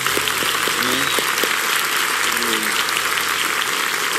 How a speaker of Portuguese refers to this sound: E eles estão à frente desse projeto Verbo Solidário. Nos ajudaram muito. Você pode dar uma salva de palmas para esse casal.